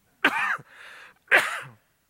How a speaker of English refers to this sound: Can you mute this for a second? I'm going to cough and I don't want to blow anybody's ears out.